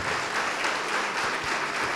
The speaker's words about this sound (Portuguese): Todos que ergueram as mãos, vem aqui para frente agora, vem para cá, saia do teu lugar e vamos aplaudir ao nome de Jesus por cada vida que está chegando.